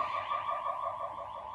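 A wailing ambulance siren sounds steadily outside an open window in summer, its wavering tone fairly loud and continuous, with no one speaking over it.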